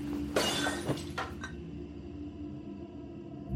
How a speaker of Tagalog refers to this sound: Basag po ang salamin ng bintana ng apartment ko. Nakita ko ang bato na may nakabalot na papel.